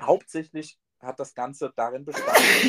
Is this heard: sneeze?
yes